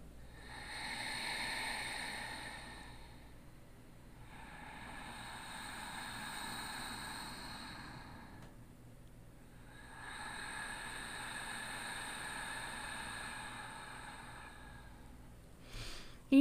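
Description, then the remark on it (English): Three long, hissing throat-constricted yogic ocean breaths, inhaled through the nose with the back of the throat restricted and held on the exhale, each lasting several seconds with short pauses between, recorded close to the mic and sounding like soft surf, ending with a brief click. “So restricting the back palate of the throat, inhale through the nose.”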